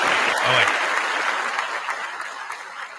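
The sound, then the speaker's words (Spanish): An audience applauds after a musical performance opening the fourth season of the show Metido en mi garaje, with dense, steady clapping that fills the whole few seconds, holding at a fairly even loudness and easing off slightly toward the end. “Un aplauso.”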